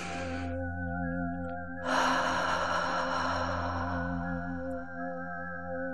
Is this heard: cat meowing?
no